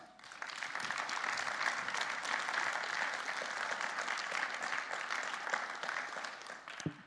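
An audience applauds a speaker steadily for several seconds, a dense wash of many hands clapping, fairly loud and sustained before tapering off at the end.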